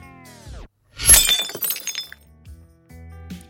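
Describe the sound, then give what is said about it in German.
A glass is thrown against a wall and shatters in one sharp, loud crash, followed by a brief scatter of tinkling shards settling, with no talking. “Ein Glas wird an die Wand geschmissen.”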